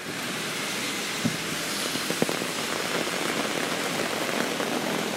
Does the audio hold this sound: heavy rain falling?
yes